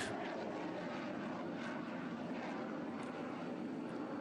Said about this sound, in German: In, äh, in diesem Moment ist es vor allem beeindruckend zu sehen, wie die Jets starten und landen, die Geräuschkulisse, die dabei entsteht, hört man gerade.